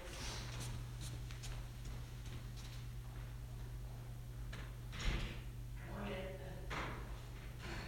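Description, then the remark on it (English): A door swings shut with a single soft thud partway through, amid quiet shuffling and a steady low electrical hum. “Let me grab the door here quick.”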